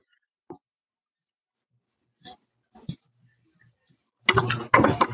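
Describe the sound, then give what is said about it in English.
A couple of bright, sharp clinks of glasses touching in a toast, spaced a moment apart, followed by a burst of louder clattering and handling noise. “I said I was gonna take one, and then I got distracted by Instagram. So, cheers.”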